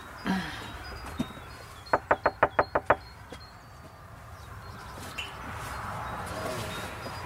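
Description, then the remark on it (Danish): A quick, even run of about seven sharp, crisp knocks on a door, followed by quiet room ambience with a faint murmur in the background. “Du skal da ikke banke lidt hårdere.”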